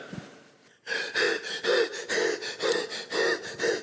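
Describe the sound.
A man pants hard and fast, about eleven loud, rhythmic breaths in quick succession, vocally imitating Philip gasping for air after running up alongside a man reading Isaiah the prophet.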